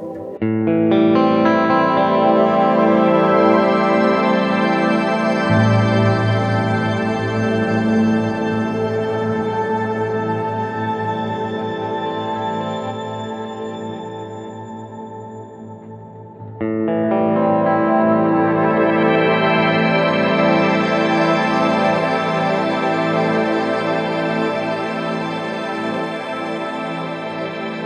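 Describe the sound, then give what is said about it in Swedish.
Sustained, heavily processed electric guitar chords from a series of pitched delay sounds made by Brett Kingman of Australia wash out in layered, pitch-shifted delay repeats. They build into a shimmering wall of tone that swells again midway, with no talking. “Pitchade delay-svaren”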